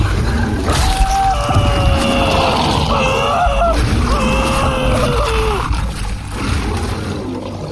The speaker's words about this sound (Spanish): Cuando escuché el grito, entré de volada a ver qué estaba pasando.